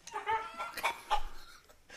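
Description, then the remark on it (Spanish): A person imitates a rooster's clucking with a quick run of short, throaty bursts, moderately loud, repeated several times over a couple of seconds. “Sí, oye, ¿por qué está ahí hablando un puerco en idioma gallo?”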